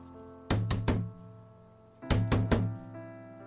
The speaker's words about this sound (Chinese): 突然，响起了很大的敲门声。